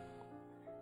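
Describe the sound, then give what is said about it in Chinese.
During a voice-training lesson on oral resonance, a person imitates a little lamb's bleat: a high, nasal, wavering voiced cry, sustained and steady, with two slight rises in pitch, heard on its own with no other talking. “好，我们先学小羊叫，”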